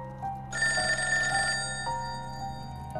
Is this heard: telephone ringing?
yes